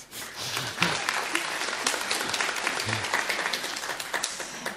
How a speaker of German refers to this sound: Ich dürfte dir ruhig einen kleinen Applaus geben.